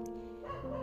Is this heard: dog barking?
yes